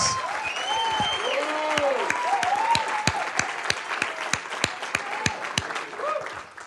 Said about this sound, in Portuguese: Eu posso afirmar que vocês têm os melhores pastores que Deus poderia lhes dar. Você pode aplaudir os pastores de vocês?